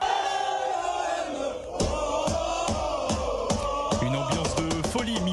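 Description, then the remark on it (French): A large crowd of Olympique de Marseille football supporters chants and roars loudly in unison at Marseille airport at midnight, welcoming a new signing, with rhythmic rising shouts and sharp claps or drum-like hits punctuating the dense, reverberant noise. “par les supporters de l'Olympique de Marseille à minuit.”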